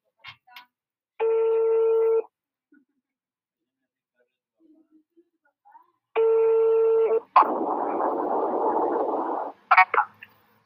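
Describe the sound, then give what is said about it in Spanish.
A phone call to a dean rings out over the line: two steady ringback tones about five seconds apart, after a few faint clicks, followed by a burst of hissy, muffled line noise as the call connects. “No, le vamos a hablar al decano primero, a ver si nos contesta.”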